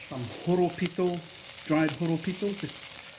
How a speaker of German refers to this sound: Chef Joe McLeod wirft ein paar Horopito-Blätter in die Pfanne. Der scharfe Geschmack gibt seinem Gericht den richtigen Pep.